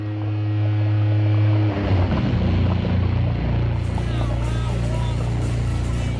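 A dense, continuous underwater rumble of a river, with deep droning tones and gritty grinding textures like stones shifting along the bed, loud and close throughout.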